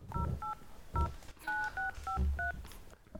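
About seven telephone keypad tones beep in quick, slightly uneven succession as someone dials a phone number with the key tones switched on, each a short two-pitch blip, with soft low thumps of handling underneath and no voices.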